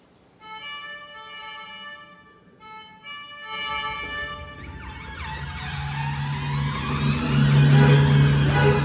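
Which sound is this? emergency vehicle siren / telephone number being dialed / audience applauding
emergency vehicle siren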